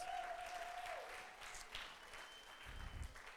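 A burst of audience applause, steady clapping from a crowd filling the whole moment with dense, even noise, lively, with no one speaking over it, as someone is called to the front onto the stage.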